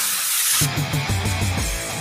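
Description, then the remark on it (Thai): A steady hiss of a high-quality aerosol chain lubricant spray in a blue can, spraying, joined after a moment by a tonal musical backing while the hiss carries on. “สเปรย์น้ำมันฉีดโซ่คุณภาพสูงเวลลอยเชลลูปกระป๋องสีฟ้า ด้วยคุณสมบัติแทรกซึมลึกถึงก้านและข้อต่อ ช่วยให้ทนแรงดึงและแรงกระชากได้อย่างดีเยี่ยม”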